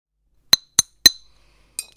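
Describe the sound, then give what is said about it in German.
Coffee cups clink together four times: three quick bright chinks in a row, then a short pause and a lighter fourth clink. Each is a sharp, ringing ceramic tap, with no talking. “Aber Kaffeetassen haben wir schon mal hier.”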